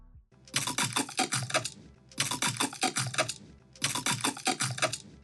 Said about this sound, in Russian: Итак, правильный ответ на вопрос – грецкие орехи и перец. Именно их использовали для создания звуков разлетающихся костей. Просто послушайте, как это звучит.